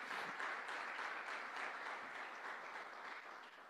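An audience gives a round of applause to the Lord, a dense wash of many hands clapping steadily at even loudness throughout, tapering only slightly at the very end.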